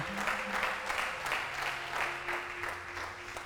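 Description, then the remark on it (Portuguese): An audience at a worship service applauds in a dense, steady wash of clapping that holds for several seconds, with soft sustained keyboard-like tones humming underneath. “Dá um aplauso aí, é isso que ele está fazendo aqui.”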